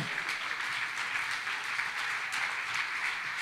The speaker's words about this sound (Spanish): si le va a dar el aplauso.